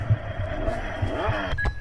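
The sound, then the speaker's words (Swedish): A motorcycle engine runs steadily with a low, throbbing rumble and a broad mechanical roar, heard alone for a couple of seconds. “Det var en motorcykel.”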